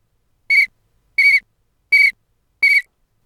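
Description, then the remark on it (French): A person blows a whistle four times in short, evenly spaced shrill blasts, each about a quarter second long, loud, with silence between them and no talking. “Nathalie doit souffler dans le sifflet cinq fois, mais elle s'est trompée.”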